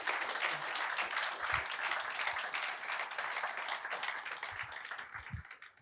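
Sustained audience applause, a dense wash of many hands clapping at steady loudness for several seconds, then tapering off slightly at the end. No voices stand out. The applause is for about 20 people who went on a project and for everyone who gave to it.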